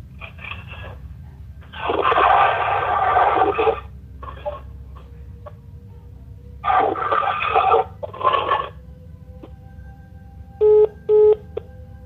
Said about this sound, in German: Also hier zwei Bilder von der Tonspur mit dem White Noise ja, und ja. einmal original und einmal rausgefiltert. Wir hören zuerst das Originale.